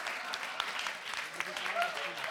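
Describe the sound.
A crowd applauds with a dense, steady crackle of many hands clapping at once, at a moderate, even level, with a few voices calling out underneath.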